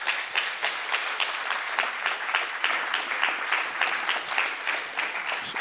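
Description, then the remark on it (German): Steady, sustained applause from an audience as a host welcomes a guest fills the whole stretch, a dense wash of many hands clapping at an even level with no voices standing out. “Applaus”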